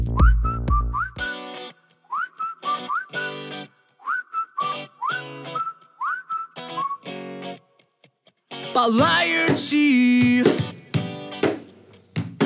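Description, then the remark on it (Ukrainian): A band's song opens with a whistled, looping melody over punchy rhythmic chords, then the full band crashes in loud and dense with vocals sung in Ukrainian near the end. “Ми будемо слухати зараз …. я Точно так ймовірно.”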